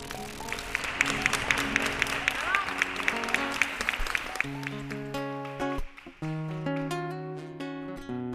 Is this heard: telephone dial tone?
no